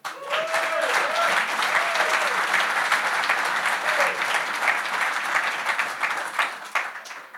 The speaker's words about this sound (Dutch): Geef ze een hartelijk applaus.